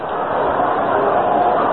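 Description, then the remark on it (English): A baseball stadium crowd reacts after ball three to Mickey Mantle, wanting to see him get something to swing on, with a steady, loud roar of overlapping voices and murmur that holds fairly even throughout, with no single voice standing out. “You can hear the reaction of the crowd.”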